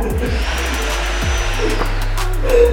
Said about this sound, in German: Bohren die jetzt einfach mal hier wie die, wie die Irren. Wieder an.